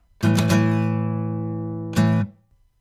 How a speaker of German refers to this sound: und wenn Sie teuflisch gute Musik hören wollen, dann sperren Sie Ihre Ohren weit auf und lauschen Sie nun meinem kurzen Gitarrenintro.